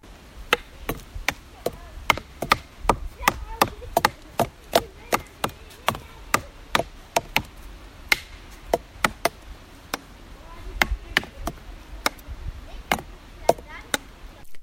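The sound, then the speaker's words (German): A boy plays a wooden drum: sharp wooden knocks strike in a steady, drum-like rhythm, dozens of crisp hits, fairly loud, with a faint murmur of background noise between them. “Ähm, Holztrommel, ähm, Konzert, nennen wir es mal.”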